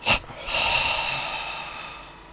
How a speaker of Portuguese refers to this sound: Então, você vai, a gente vai fazer o seguinte, nós vamos inspirar fechado, né? profundamente e a gente vai expirar em duas exalações pela boca encolhendo a barriga lá atrás, tá bom? Então vamos inspirar. Segura o ar. E solta.